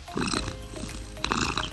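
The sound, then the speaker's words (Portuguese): A domestic cat named Cebola purring while lying in a person's lap, a steady low rumble with breathy, rhythmic pulses as it breathes in and out, heard alone without any talking. “todo mundo fica quieto e começa a ronronar”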